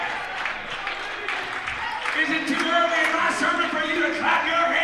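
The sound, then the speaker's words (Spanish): An audience breaks into sustained applause for God, clapping steadily and fairly loudly for several seconds, mixed with scattered shouts, cheers and overlapping voices throughout. “Es más temprano para aplauso a Dios y gracias a Dios para el poder del Espíritu Santo.”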